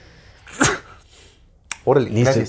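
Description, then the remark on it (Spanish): A single sharp, explosive sneeze bursts out, followed by a short pause before a person starts talking. “Salud.”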